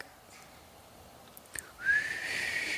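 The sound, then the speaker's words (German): After a quiet stretch and a soft click, someone lets out a loud, sustained whistle that rises slightly in pitch and holds steady to the end, as if calling someone back. “Nee, wenn du mich pfeifst, bist du bescheuert.”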